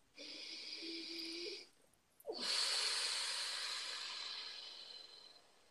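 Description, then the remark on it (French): A long, audible breath taken in a guided exercise: a drawn-in inhale with a slightly nasal, whistling edge, a brief pause, then an extended airy exhale that slowly fades. No one speaks. “Alors, une respiration.”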